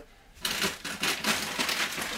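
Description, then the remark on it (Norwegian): Fairly loud paper crinkling starts after a brief quiet moment and continues in dense, irregular crackly bursts, with no voices. “Ja, og så knitrer det i papir. Knitre, knitre, knitre. Vent litt, vent litt. Jeg har litt knitring her.”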